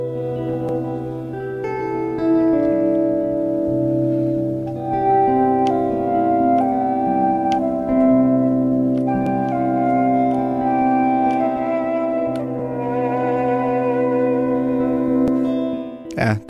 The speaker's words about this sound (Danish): men det der til gengæld er, det er et halvanden times langt instrumentalt værk, hvor fløjten spiller hovedrollen.